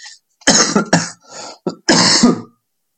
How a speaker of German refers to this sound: Hust, hust.